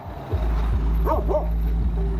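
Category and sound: animal, dogs barking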